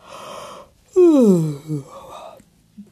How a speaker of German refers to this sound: Und jetzt ist Frau Usebuse müde. Sehr müde. Sie gähnt.